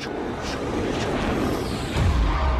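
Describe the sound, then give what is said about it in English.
A voice imitates fighter jets flying over with a continuous breathy, rushing roar that lasts a couple of seconds and swells into a louder, deeper rumble at the end. “And about 30 seconds later, we heard the real recognizable sound of fighter jets going.”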